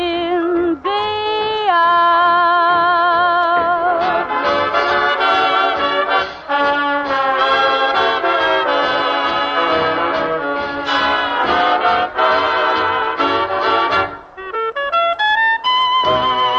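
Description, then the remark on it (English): A swing big band plays loudly with brass and reeds in full, bright harmonies over a steady rhythm section, with no voices. It sounds thin and band-limited, a radio broadcast from opening night on 19 October 1939 at the Cafe Rouge of the Pennsylvania Hotel, New York City. “… and his orchestra with the vocalist … and …. We heard samplings of their radio broadcasts opening night.”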